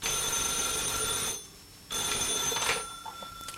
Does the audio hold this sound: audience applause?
no